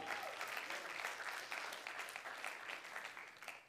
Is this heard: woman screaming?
no